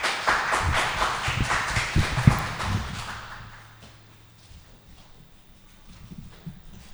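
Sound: warm round of applause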